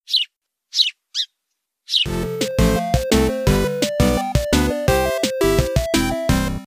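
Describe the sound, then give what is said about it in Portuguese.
Four quick, high sparrow-like chirps sound alone, then a bright, rhythmic musical jingle kicks in with bouncy repeating notes, loud and upfront, with no talking. “vocês estão a ouvir o Piado do Pardal.”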